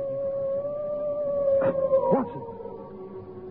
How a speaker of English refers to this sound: That was the cry of a hound. They say it's the cry of the hound of the Baskervilles.